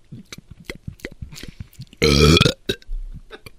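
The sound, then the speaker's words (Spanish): A single loud, drawn-out burp of about half a second from a priest stands out sharply against quieter scattered sounds and murmuring voices around it. “Pero se aventó, se aventó un erupto.”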